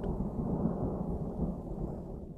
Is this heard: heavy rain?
yes